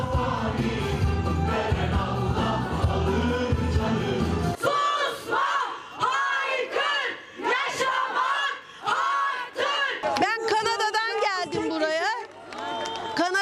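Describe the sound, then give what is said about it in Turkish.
A crowd at an animal lovers' rally in Istanbul, Turkey, chants and yells in loud, overlapping bursts, demanding an end to suffering in animal shelters. The first few seconds are thick and rumbling, then sharper rhythmic shouts rise and fall with brief pauses between them. “Düzenledikleri mitingle barınaklardan gelen acı görüntülerin son bulmasını istediler.”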